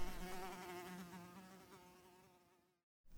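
A housefly buzzes in one continuous, wavering drone that holds steady for almost three seconds, then stops abruptly, leaving a brief silence.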